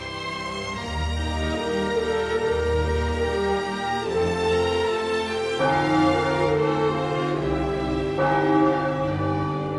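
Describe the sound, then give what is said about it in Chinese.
A school bell rings in a few spaced strikes, each one a rich, shimmering tone whose ringing overlaps the next, steady and fairly loud throughout, with no voices. “不久，钟声响了，学生们都到走廊集合。”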